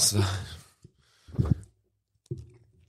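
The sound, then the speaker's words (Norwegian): Crunchy bites and chewing on hard frozen ice cream as a man races to eat it against a timer, coming in three separate bursts with short pauses between, mixed with muffled voice-like sounds. “Han er allerede ned med toppdelen av eh, isen.”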